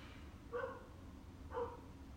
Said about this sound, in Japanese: めっちゃうちの犬吠えてんじゃんやっぱ音漏れんのかなどうしよう